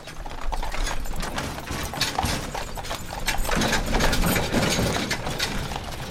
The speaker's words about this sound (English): But if I'd done that, I wouldn't have been on Joint Base Myer Henderson Hall when they hitched up the horses and the first caissons of the morning rolled out.